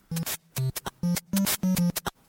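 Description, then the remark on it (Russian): Chiptune-style percussion in a steady, punchy rhythm: hissy bursts from a white-noise channel alternate with short, low, buzzy drum hits from a recorded-percussion channel, loud, with no voices. “Начинается все с канала, который воспроизводит белый шум, и канала, который воспроизводит записанную перкуссию.”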